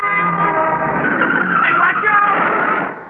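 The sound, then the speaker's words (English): A loud screech of car tires skidding as a car rides into the rear of a limousine, sustained for about three seconds with a rough, grinding edge, fading slightly at the end; no clear crash impact stands out. “That crazy guy in a car ride right into the rear of that limousine.”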